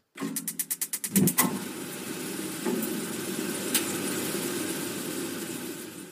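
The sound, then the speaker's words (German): A gas boiler igniting: a quick run of about nine sharp ticking clicks, a soft whump as the flame catches, then a steady low roaring rush that holds on. No one speaks. “Ja, ich weiß nicht, ob man das wirklich gut erkennen konnte, aber das ist das Geräusch, wenn eine Gastherme anspringt.”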